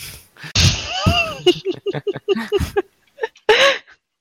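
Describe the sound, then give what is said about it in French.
A loud, noisy crash bursts out near the start, as if a door were being smashed in, followed by a run of short vocal grunts and another rough, breathy burst near the end. “Vous étiez obligé de défoncer la porte Ordre de l'empereur.”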